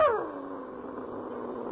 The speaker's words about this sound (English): Is he a dog? Yeah. He don't seem to like me the way he's growling. I guess he don't know you, that's all.